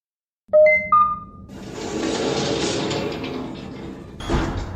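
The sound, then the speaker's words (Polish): In a video game, a short electronic chime of a code lock releasing, then a loud, sustained mechanical whoosh as a heavy door slides open, ending with a dull thump. No one speaks. “Yes, it's open.”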